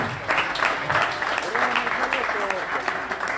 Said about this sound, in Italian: Allora a questo punto passo la parola al segretario nazionale Fabrizio Cecchelli. Un applauso.